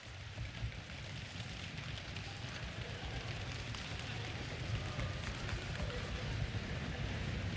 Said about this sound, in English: Okay. Stomp your feet.